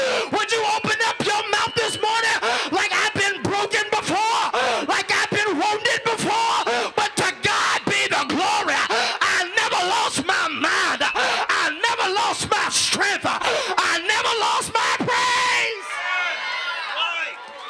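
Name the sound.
audience shouting and yelling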